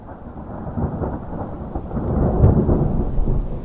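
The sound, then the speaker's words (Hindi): Steady rain patters down on window glass while low, rolling thunder rumbles continuously underneath, swelling louder toward the end. No voices, just the storm. “बारिश के दिन फिर से वापस आ गए गरज बरस बरसात की टिप टिप और खिड़कियों के गिलास पर एक दूसरे से रेस अड़ाती बूंदे”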